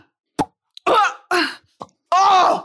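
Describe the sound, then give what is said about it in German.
A voice imitates tennis ball hits with sharp mouth pops, interspersed with loud, strained vocal grunts like a player's exertion, alternating in a quick, uneven rhythm. “Ich kann sehr gut Tennis nachmachen.”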